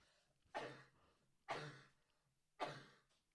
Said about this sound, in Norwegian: Nå håper ikke jeg at, jeg, at denne hostinga kom altfor mye med på opptaket.